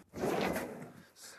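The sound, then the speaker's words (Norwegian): A non-studded demonstration tire rolls across a metal demonstration plate, giving a smooth, steady rumbling scrape for about a second with no sharp clicks, then fading into a softer hiss. “Du har et dekk, eh, demonstrasjonsdekk her uten pigg.”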